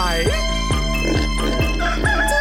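A rooster crows loudly over bouncy music with a steady, even drumbeat, the drawn-out call sitting bright above the rhythm.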